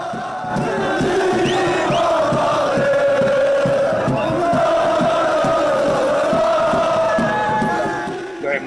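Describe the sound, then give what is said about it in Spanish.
A large crowd of Moroccan football fans shouts and cheers together in a loud, sustained roar, with rhythmic chanting pulses running through the noise for several seconds; a fan shouts "Wow!", "History!" and "Yes!". “Aficionado de Marruecos ¡Wow! ¡Wow! ¡History! ¡History! ¡History! ¡Yes! Histórico, histórico, histórico. Marruecos histórico, grita.”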